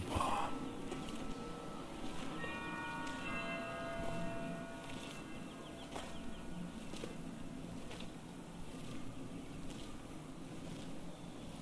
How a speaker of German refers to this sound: Blick richtet sich auf ein Ziel, eine kleine Kapelle auf dem Hügel. Sie ragt mit ihrem kleinen Turm in den blauen Himmel. Leises Glockenläuten nimmst du